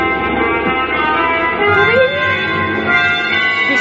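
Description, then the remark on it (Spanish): Trumpets blare loudly and continuously within a full orchestral passage, sustaining bright, brassy notes with a brief rising and falling glide over a dense, rumbling backdrop. “Las trompetas.”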